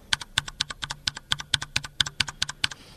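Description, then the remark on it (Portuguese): Rapid, crisp clicks of mechanical keyboard keys being pressed in a steady typing rhythm, about a dozen sharp clacks, clear with no voices. “O meu teclado hoje não tem nenhum rubber, mas eu vou apertar uma individual, no caso seria a seta.”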